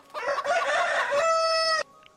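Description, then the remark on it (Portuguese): A rooster crows once early in the morning, loud, a strained rising call that holds a long, steady harmonic note before cutting off abruptly. No talking during the call. “Bicharada já acordando cedo.”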